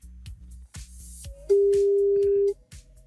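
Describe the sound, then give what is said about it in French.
A telephone being dialed for a live call on RTL radio to a listener in Mulhouse: a string of clicks and short pulses, then a single loud, steady ringing tone lasting about a second before cutting off. No one speaks. “On va lui poser la question. On appelle en direct.”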